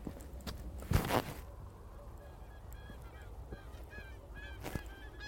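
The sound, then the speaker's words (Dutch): Distant Bewick's swans calling: a faint, scattered chorus of soft honking notes drifting in the background, with a couple of louder bumps and rustles and no one speaking. “Denk ik heel ver weg kleine zwanen die aan het roepen zijn.”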